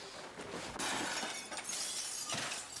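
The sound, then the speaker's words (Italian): A printer thrown off a balcony smashing to pieces: a loud crash of shattering plastic and glass, followed by a few more bursts of breaking debris over about three seconds, with no voices. “Hai detto prova a lanciare la stampante, l'ho buttata giù dal balcone.”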